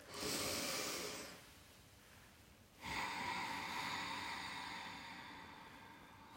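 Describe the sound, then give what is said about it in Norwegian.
Two loud, breathy rushes of air during a breathing exercise, a strong, forceful, active exhale, a brief quieter pause, then another long, audible push of breath fading slowly. No talking. “La også utpusten din bli aktiv.”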